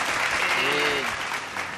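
Steady applause from a crowd fills the short stretch, dense and continuous at moderate loudness, with a brief voiced tone surfacing faintly beneath the clapping.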